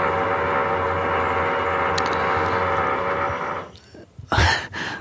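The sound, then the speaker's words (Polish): A power drill whines steadily in the background for about four seconds, a loud continuous buzzing tone, then cuts off, followed by a couple of brief harsh bursts. “Sorry za tę wiertarkę, w tle. przez cały dzień była cisza, a teraz kurczę zaczęli wiercić.”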